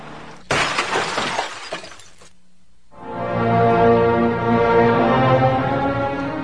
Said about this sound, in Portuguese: Uma vala maior aberta no asfalto produziu impacto na direção e uma árvore se agigantou, avançando contra seu para-brisa. Instintivamente, ele protegeu o rosto com os braços. Foi um ribombar de latarias.